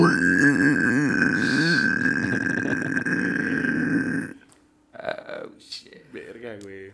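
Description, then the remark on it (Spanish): A man imitates a pig with a long, loud, rasping grunt-squeal lasting several seconds, then breaks off into short voiced sounds and laughter. “la señora con cabeza de cerdo voltea y con ojos blancos les hace.”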